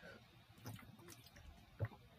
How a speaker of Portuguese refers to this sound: Só um minuto, deixa eu tomar água aqui.